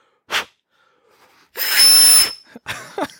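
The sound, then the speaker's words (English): A short puff, then a hard, sustained rush of air blown into a Nintendo game cartridge for about a second, hard enough to make it whistle, with a thin high whistle riding on top, followed by a few shorter breathy bursts. “That is me blowing into a cart hard enough to make it whistle.”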